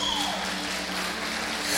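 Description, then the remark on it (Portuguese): An audience applauds the men together in a steady, dense wash of applause that holds at an even loudness throughout, with a faint electronic hum running beneath it and no talking. “Vamos aplaudir os homens.”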